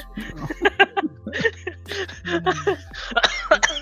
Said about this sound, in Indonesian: Eh, batuk loh. Batuk dia. Batuk Hati-hati ya.